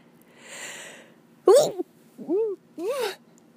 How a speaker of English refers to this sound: oh gosh, I have to sneeze.